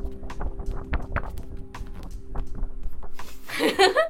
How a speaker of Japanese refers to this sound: いい紙の音聞こえました結構いい紙で分厚いんですよね